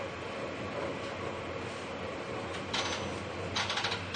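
A Seibu 40000 series S-Train commuter train on the Hannō–Shibuya service runs along at speed, a steady broad rumble from inside the car, with brief rattling clatters near the end as the wheels pass over rail joints. No one speaks.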